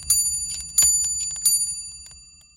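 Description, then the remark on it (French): An eight-day pendulum clock chimes three times in a steady rhythm, each bright metallic strike leaving a ringing tone that slowly fades. The sound is clear, with no one talking. “Eh bien oui Pour quelle pendule me prenez-vous Bien sûr que je tiens huit jours entiers en donnant l'heure exacte.”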